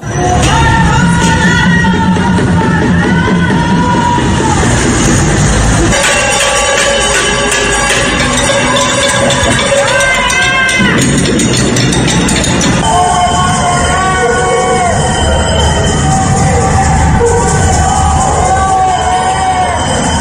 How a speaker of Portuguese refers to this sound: Durante o pronunciamento foram registrados panelaços e protestos por todo o país, com gritos como genocida e fora Bolsonaro.